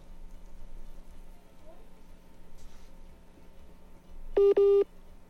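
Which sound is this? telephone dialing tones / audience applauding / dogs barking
telephone dialing tones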